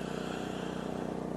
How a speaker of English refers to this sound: That is the sound of my generator. That is not a good sound. Number one, it's a little rough, needs a tune up, I'm sure.